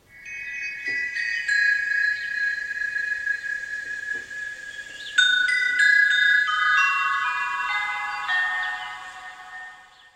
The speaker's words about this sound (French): Chaque fois que tu entendras ce carillon magique,